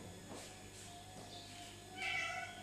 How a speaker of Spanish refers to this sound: Aprendiendo a identificar ese ruido. ¿Qué escuchaste ahora? Un gatito, ¿cierto?